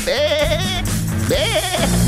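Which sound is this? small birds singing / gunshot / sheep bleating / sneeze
sheep bleating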